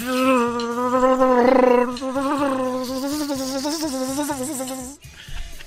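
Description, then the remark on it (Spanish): A loud, dense, continuous buzzing of a bee swarm that went for the buttocks of a 25-year-old man as he was fixing something, its droning pitch wavering up and down for about five seconds before abruptly dropping away. “Eh, la número 10, enjambre de abejas confunde trasero de hombre con un panal.”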